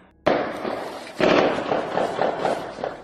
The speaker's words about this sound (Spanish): Eleazar accionó su metralleta en diversas ocasiones, haciendo impacto los disparos en la humanidad de Guillermo Faustino Ramírez, quien murió instantáneamente.